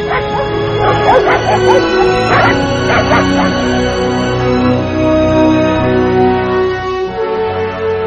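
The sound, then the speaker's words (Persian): A sheepdog barks several times in quick, loud bursts early on, then settles into softer whining and yelping over a steady background of droning noise. “تغییر سبک زندگی چوپان زندگی سگهای گله رو هم تغییر داد”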